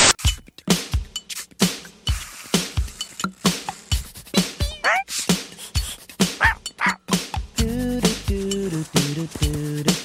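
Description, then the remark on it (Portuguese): A person's voice mimics a dog as vocal sound effects in a classic TV opening, firing off rapid barks, yips and whimpers in a busy rhythm, ending in a run of sustained, whining tones. No speech. “os latidos do Costelinha eram uma pessoa. Não era sonoplastia gravada de um cachorro de verdade”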